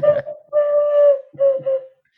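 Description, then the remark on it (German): A person imitates an eagle owl by blowing into cupped hands: one long, breathy hoot followed by two shorter hoots, fairly loud, with no talking. “Ich mache einfach den Uhu.”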